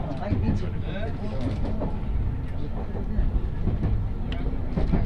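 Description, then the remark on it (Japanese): Inside a JR West Tokaido Main Line Special Rapid commuter train bound for Himeji, running between Kusatsu and Shin-Osaka and stopped at a platform, a steady low rumble of the idling car fills the space while indistinct voices and shuffling movement of passengers murmur throughout. “耳で楽しむ鉄道旅 東海道本線新快速”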